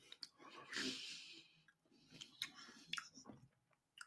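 Chewing of food, with a run of moist, crunchy mouth sounds and bites at an irregular rhythm, mixed with a few nasal breaths. Nobody speaks.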